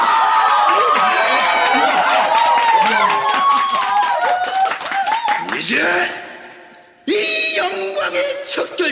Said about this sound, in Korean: 여러분, 높이 날아오를 이 회원님에게 뜨거운 박수 부탁드립니다!